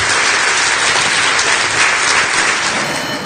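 A crowd applauds in a steady, dense wash of clapping that stays loud throughout, with no talking over it.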